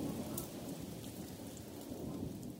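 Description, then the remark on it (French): Steady, heavy rain hisses continuously with a deep, constant rumble of thunder underneath. The downpour stays dense and even throughout, with no voices. “Nous devons aider Lucie à ramener le maïs du champ avant qu'il ne pleuve trop fort.”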